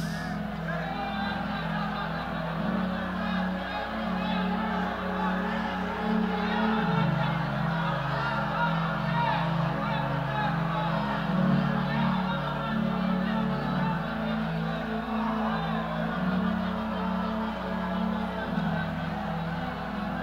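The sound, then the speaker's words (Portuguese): An audience shouts in tongues all at once, a dense, overlapping roar of many voices that holds steady and loud throughout, with no single speaker standing out. “Agora aqueles que puderem, só os que puderem, começa a gritar em línguas.”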